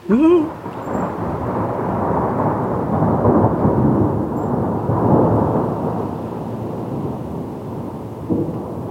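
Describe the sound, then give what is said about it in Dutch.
A long, deep rumble of thunder rolls steadily for several seconds, broad and low, with a brief sharper onset at the start and a faint swell near the end. “En nu onweert het zelfs.”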